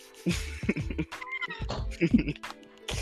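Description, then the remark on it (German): A cat meows a few times, short drawn-out cries, mixed in with a person talking over them. “So, Katze.”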